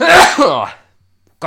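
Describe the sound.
One loud sneeze bursts out and trails off into a voiced tail, followed by a short silence before someone starts talking.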